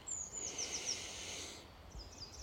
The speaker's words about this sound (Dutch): nog eventjes in Frankrijk, in de bergen. Met vogeltjes, maar op de achtergrond ook de snelweg. Die hoor je hier ook.